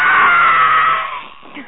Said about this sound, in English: shout out scream. The shout out scream that, is great. Who put that scream in there? I did.